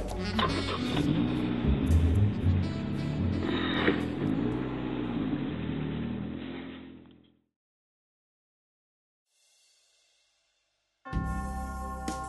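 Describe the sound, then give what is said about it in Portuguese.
A car engine is started and runs loudly and steadily as the car drives toward a hotel, its rumble fading away after about seven seconds into silence before another loud burst of sound cuts in. “Liguei o carro e fui em direção ao hotel.”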